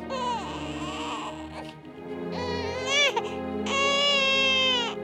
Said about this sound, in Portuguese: No dia seguinte, pela manhã, quando a família chegou, chamava por ela, mas ninguém respondia e os familiares começaram a procurá-la no meio das ruínas, quando ouviram de longe o choro de uma criança.